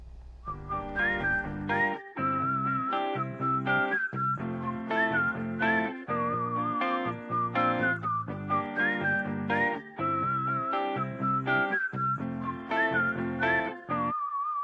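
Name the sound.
requested pop song playing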